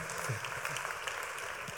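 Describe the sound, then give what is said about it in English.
A church audience claps steadily throughout as a preacher comes up to preach, a dense, continuous patter of many hands with no pauses and no speech over it. “Well, could we give him a big round of applause?”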